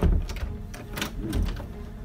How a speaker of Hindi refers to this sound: उसे अब अपने बेडरूम के दरवाज़ा खुलने की आवाज़ आई